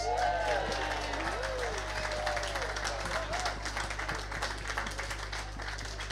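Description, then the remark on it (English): A crowd at the ENCside event applauds for mothers on Mother's Day, steady dense clapping filling the whole stretch at an even level, with a few raised voices whooping and cheering over it and a low steady hum underneath. “Let's hear it for the mothers.”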